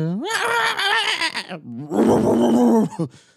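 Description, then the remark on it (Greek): A voice imitates neighbors screaming: two loud, strained wailing bursts in a row, the first rising and wavering, the second harsher and more sustained, with no other sound. “Δεν ξέρω ποιοι γείτονε ήταν. Δεν έχει βέβαια και πολλά ζευγάρια εδώ πέρα που είμαστε. Αλλά ούρλιαζαν.”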